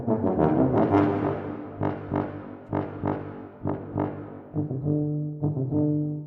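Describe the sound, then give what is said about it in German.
A tuba blares in its low register with a raspy, rattling buzz, playing a series of short, punchy accented notes before settling into a few longer sustained tones. Loud, with no voices. “Und dazu gehört auch, dass sie in der Tiefe mal so richtig knattert.”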